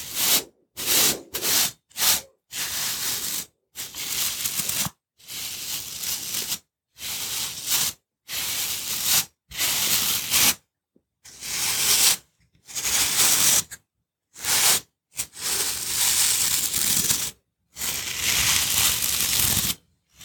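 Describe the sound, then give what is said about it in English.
A brush sweeps loose dirt and dust off a metal surface at the start of a cleaning, in a long series of quick, scratchy, fairly loud strokes, with brief pauses between bursts and no talking. “So I'll just take my brush here and we'll just begin by brushing off any loose dirt and dust, okay?”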